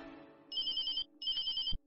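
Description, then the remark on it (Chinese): A phone rings in two short bursts of bright, fluttering electronic trills with a brief pause between them, followed by a soft thump as the call is rejected and the ringing stops. “楚风正在思索随后应该做些什么，但电话响起，他看都不看一眼来电显示，直接选择挂断。”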